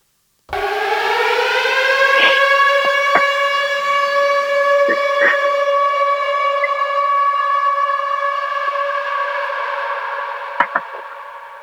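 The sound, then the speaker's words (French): A loud, sustained siren wail, used as a signal before a recording begins, holds a steady harmonic tone for about eleven seconds, with a few brief clicks and knocks near the start and end; no one speaks. “Et eh ben, écoute, dans 3 secondes, euh, je commence à enregistrer, d'accord Après la... Après la sirène.”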